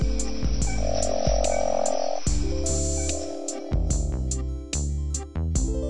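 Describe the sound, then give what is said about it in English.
A Boie's frog calls repeatedly in short, loud croaking bursts with a buzzy, rhythmic quality, the pulses coming in quick succession with no voices present. “One source I read said that this frog's call, quote, lacks harmonic structure which seems overly critical.”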